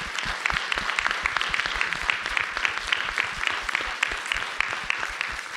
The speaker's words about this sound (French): Merci à toutes les quatre. On peut les applaudir bien fort.